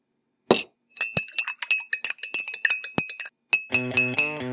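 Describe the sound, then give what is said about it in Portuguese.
Coffee cup clinking: a quick run of bright ceramic clinks and taps, close and fairly loud, followed by a short ringing chime-like flourish at the end. No talking. “Hora daquele cafezinho.”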